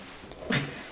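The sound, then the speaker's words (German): A single short sneeze bursts out about halfway through, a quick breathy hiss with a brief voiced edge, fairly soft against a steady room background. “Hey, Gesundheit.”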